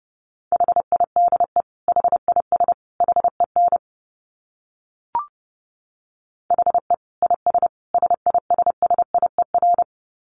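Morse code at about 30 words per minute: a steady mid-pitched tone keyed in quick dots and dashes, sent in two bursts separated by a pause broken by a single soft click.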